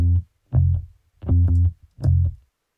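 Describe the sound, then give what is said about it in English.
A palm-muted, distorted bass synth repeats short, chunky low notes on F in uneven bursts, panned back and forth between left and right, with brief silences between them. No other instruments or voices are present. “Very simple, repetitive, palm muted thing, just on F, and I pan it back and forth, left and right.”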